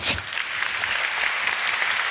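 A short burst of applause, dense and steady clapping from a small group for about two seconds, moderately loud, with no one talking over it.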